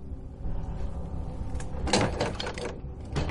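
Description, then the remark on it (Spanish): A padlock locking the garden door of a spa, the door the gardener came through, is shaken, giving a cluster of quick metallic rattles and clanks in the middle, over a steady low background rumble. “Zarandea el candado que cierra la puerta por la que entró el jardinero.”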